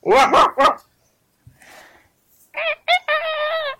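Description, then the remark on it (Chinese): A person imitates a dog barking: three quick, loud yaps, a short pause with faint rustling, then two more barks stretching into a drawn-out, whining howl. “这是狗叫啊！”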